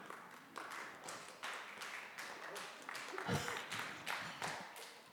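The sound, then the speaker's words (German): An audience at a church service claps together, a dense, steady patter of many hands that holds at an even moderate level for about five seconds, with a few louder swells along the way. “Du hast beim Stichwort genau richtig geklatscht.”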